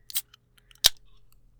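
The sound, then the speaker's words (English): A beverage container is cracked open with two distinct, crisp snaps about half a second apart, the second sharper and followed by a brief faint hiss, over a quiet low hum. “We got two distinct, nice, crisp uh, opener opening sound.”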